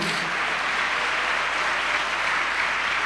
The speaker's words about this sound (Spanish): Dale un aplauso a Dios, hermano, a su nombre, gloria.